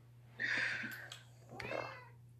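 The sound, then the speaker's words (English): A cat named Glenn meows twice, the first call long and bright, the second a shorter, lower mew, with a faint steady hum underneath and no talking. “Oh, there he is. Can you hear him?”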